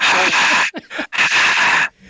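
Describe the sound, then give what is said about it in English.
A voice imitates crowd noise with loud, breathy hissing exhalations, two long rushes broken by a short gap of quicker panting breaths. “Yes, that was supposed to be crowd noise.”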